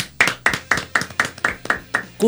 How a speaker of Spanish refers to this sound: Y eh, pues nada, lo tenemos como invitado especial esta tarde. Un aplauso para él,